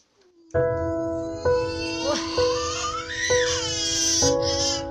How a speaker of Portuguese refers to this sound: Editor, coloca o vídeo da menina chorando porque é baiana, por favor.